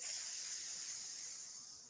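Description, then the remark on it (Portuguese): A voice imitates the little pin of a pressure cooker being lifted to let off steam, a steady breathy hiss lasting about two seconds and slowly fading toward the end, with no words spoken. “Quando ele vai na terapia, ele levanta o pininho da panela de pressão e faz.”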